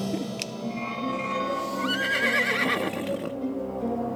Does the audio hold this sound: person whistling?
no